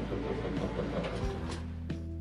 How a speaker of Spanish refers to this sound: Pero eh, siendo congruentes, eso que escucha usted es la lavadora.